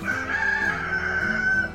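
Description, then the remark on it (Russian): A rooster crows once, a loud, drawn-out call with a strained, wavering pitch that holds for nearly two seconds. No voices are heard. “Да, господа, помните, что петух – символ 2017 года – воспевает даже то утро, когда его кладут в суп.”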